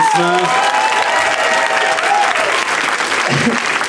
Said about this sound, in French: Je pense qu'on peut leur donner une bonne main applaudissement.